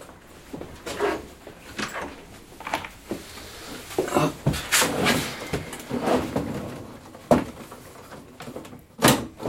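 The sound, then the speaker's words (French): A door is pushed shut amid a series of sharp knocks and rattling handling noises, with a solid thud midway and a few more clicks and bumps afterward. “Allez, je la porte derrière toi.”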